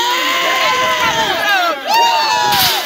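cheering crowd

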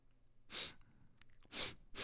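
breathing into the microphone

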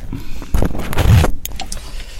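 car switched off

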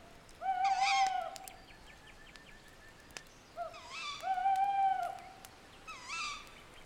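owl hooting at night

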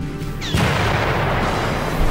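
explosion sound effect

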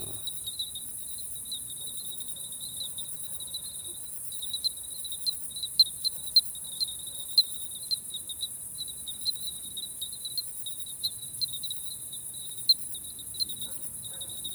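bell cricket chirping

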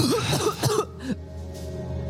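coughing

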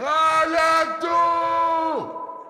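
man screaming in pain

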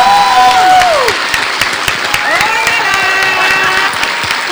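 audience applause and cheering

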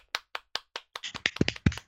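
audience clapping

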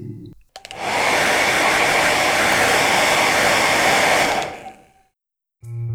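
hair dryer blowing

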